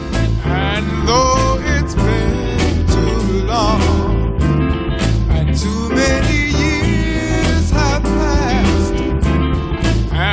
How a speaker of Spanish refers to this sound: El platillo que suena es como el brindis y la canción es …